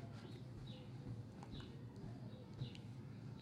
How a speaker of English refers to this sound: Those little stomps of him stomping away.